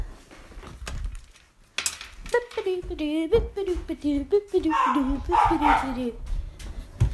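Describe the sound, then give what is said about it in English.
A dog vocalizes repeatedly, a run of yelping barks and whiny, falling cries over a few seconds, with light clatter in the background. “My dog's just started barking.”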